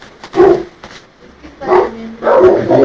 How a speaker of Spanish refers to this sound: Ahora sí, vamos con el padre Maciel y con los perros ladrando.